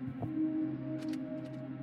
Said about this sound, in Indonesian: Soalnya ini aku tutup itu menghindari adanya suara motor-motor gitu kan. Kedengeran takutnya. Nah ini kayak motor lewat.